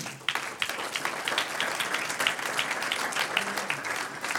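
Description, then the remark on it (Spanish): An audience breaks into sustained applause for the Lord during a church sermon, many hands clapping together in a dense, steady roar that carries on without pause, with no voices standing out. “Un aplauso al Señor.”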